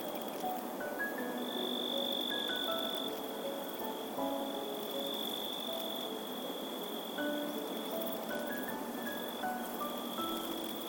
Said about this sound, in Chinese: 他们分别是能利用摩擦翅膀发出声音、节奏感超好的蟋蟀姐姐。